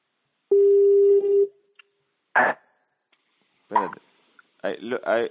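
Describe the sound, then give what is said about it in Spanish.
A single steady ringback tone buzzes on an outgoing phone call for about a second, then stops, followed by short bursts of talking from people on the line. “Contesta, pues maricón, que dejé la cagada.”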